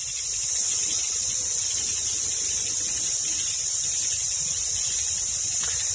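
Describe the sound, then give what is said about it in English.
A dense chorus of crickets chirping in a steady, unbroken high-pitched shimmer, fairly loud and constant throughout with no pauses and no voices. “And then let's listen to crickets.”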